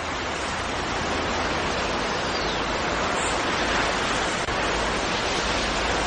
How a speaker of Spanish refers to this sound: Nos dirigimos ahora al Mirador de Benidorm, un lugar donde podremos ver y escuchar el mar en toda su plenitud.